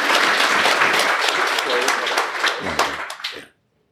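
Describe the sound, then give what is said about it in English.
A crowd applauds with dense, steady clapping and a few cheers mixed in, holding loud for several seconds before tapering off and stopping abruptly. “Round of applause for that bar.”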